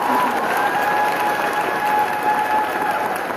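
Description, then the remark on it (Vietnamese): A crowd applauds steadily throughout, dense clapping at a constant loud level with a faint whistle-like tone running underneath and a murmur of voices mixed in. “hãy vỗ tay lớn lớn cái tôi cảm ơn cái người đó”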